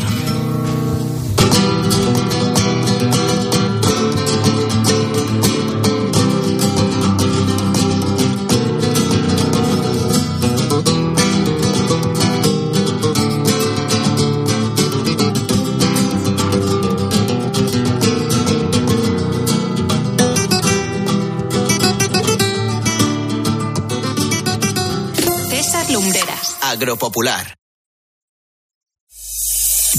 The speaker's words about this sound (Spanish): Nos despedimos con música en directo desde aquí, música de guitarra. Adelante.